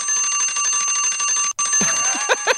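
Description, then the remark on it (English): A loud, continuous electric alarm bell rings with a rapid metallic trill, like a school bell, briefly cutting out before resuming, with a few scattered brighter clangs near the end. “We should set an alarm that sh- sounds like a school bell”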